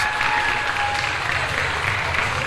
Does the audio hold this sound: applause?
yes